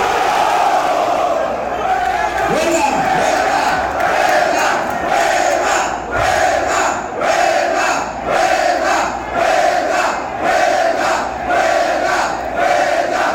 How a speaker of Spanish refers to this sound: Pues así gritaban los trabajadores de Sicarza, huelga, huelga, y han declarado ya esta huelga oficialmente.